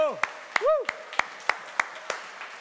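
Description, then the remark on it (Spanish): Audience applause for the team that made a timeline being unveiled: about eight sharp claps in a steady, evenly spaced rhythm, joined by a brief rising-and-falling vocal cheer early on, then trailing off. “Miren, vamos a estrenar este, un aplauso para todo el equipo que hizo esta línea del tiempo.”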